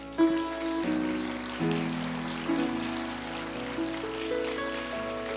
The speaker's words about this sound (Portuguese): Será que a gente pode dar uma salva de palmas para o Senhor?